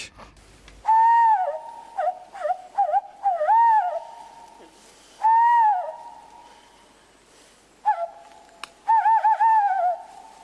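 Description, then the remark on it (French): A person imitates a tawny owl's hoot: several long, clear whistled hoots with wavering, quavering endings, with short pauses between calls and no talking. “Alors on pourrait se dire que c'est le cri d'une chouette hulotte, effectivement, sauf que c'est une imitation d'ailleurs parfaitement réussie.”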